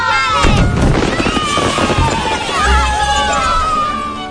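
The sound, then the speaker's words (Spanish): Fireworks rockets going off to win over the children: shrill whistling streaks rising and falling over a dense run of crackling bangs and low booms, continuous and loud throughout, with a crowd murmuring underneath. “Eso sí, cuando llega, aunque sea tarde, el truquito este de los fuegos artificiales para convencer a los chiquillos y metérselos en el bolsillo, bueno, por ahí aparece con el truco de siempre.”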